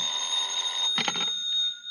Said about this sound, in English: About 11 o'clock, I had a phone call.